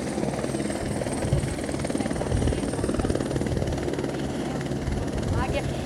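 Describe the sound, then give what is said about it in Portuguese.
A Military Police (PM) helicopter lifting off at the Rodoanel in Brazil to carry a car-accident victim to hospital, its rotor blades thudding in a fast, steady rhythm over a loud, constant engine roar, with a voice faintly audible underneath. “Helicóptero da PM resgata vítima de acidente no Rodoanel”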